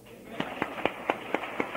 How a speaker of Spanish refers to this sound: ¿Pueden darle un aplauso a Cristo por eso?